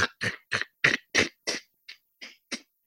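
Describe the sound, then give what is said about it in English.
A voice mimics the crunching of a fax machine as a document comes out of its document tray: about ten quick, rhythmic, gravelly bursts, fairly loud, tapering off slightly toward the end, with no talking. “And the noise they'd make as, the, as it would come out of the uh, document tray, this sort of crunching”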